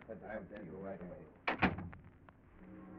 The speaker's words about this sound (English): Then the door opens and you get a shock.